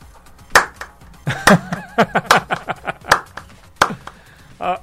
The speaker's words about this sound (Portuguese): Sabe para quem essas palmas? Para quem? Danilo Portugal.